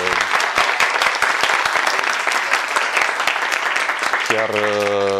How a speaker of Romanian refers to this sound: vreau să dăm un rând mare așa de aplauze pentru organizatorii acestui uh, eveniment